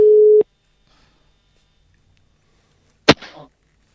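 A steady, loud single-pitched ringback tone of an outgoing phone call to someone deep in the forests of Värmland, Sweden, sounds briefly, then cuts off into silence before a sharp click and short rustle as the line connects.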